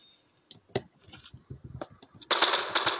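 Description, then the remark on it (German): Rapid bursts of automatic rifle fire from a video game, sharp repeated cracks that build into a loud, dense stream of shots near the end. “Ach, Digga, ich treffe natürlich jetzt gar keinen Schuss mehr, ne?”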